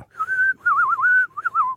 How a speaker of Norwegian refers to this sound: han spiller fløyte på alt som er, han!